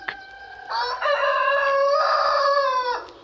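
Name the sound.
rooster crowing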